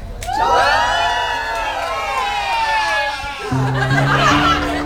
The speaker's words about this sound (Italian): Ringraziamo il pubblico CEO. che si è radunato qui e gli chiediamo un applauso e un urlo per, la, per gli ascoltatori di Radio Animati. Uno, due, tre.